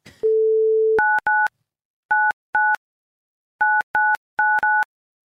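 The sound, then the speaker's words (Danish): A short steady telephone tone gives way to a run of identical electronic beeps as a phone number is dialled, every digit on the same note, repeated in quick pairs and clusters, crisp with brief silences between. “Det var et meget sådan, et nummer med den samme tone, var det ikke?”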